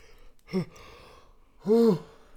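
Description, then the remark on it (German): A breathy yawn: a short intake of breath, a pause, then a longer voiced, drawn-out exhale that rises and falls in pitch, with no talking. “Gähnen ist ja auch ähm, ein, übrigens ein Zeichen von, von Hyperventilation.”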